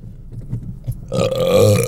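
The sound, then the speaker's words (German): A single long, loud burp after eating 20 chicken nuggets swells up after a brief low rumble, sustained and throaty with a resonant croaking tone for almost a second. “Entschuldigung, ich hatte gerade 20 Chicken Nuggets, während ich im Restaurant zur Goldenen Möwe saß und äh, E-Mails schrob.”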